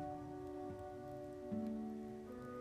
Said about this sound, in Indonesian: Hari ini aku basah kuyup, meruntuki hujan yang jatuh ke bumi.